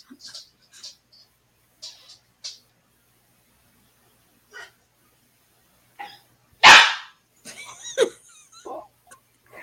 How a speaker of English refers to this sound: I think your dog did bark too. probably scared him.